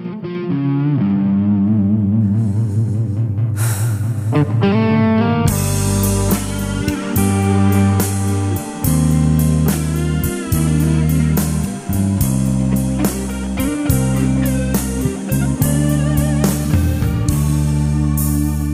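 A Mandopop love song intro: a soft, sustained instrumental opening swells, then a full band crashes in with steady drums, deep bass and distorted electric guitar, no singing yet.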